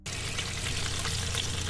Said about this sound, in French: Son bruit préféré en cuisine, c'est le crépitement dans la poêle chaude.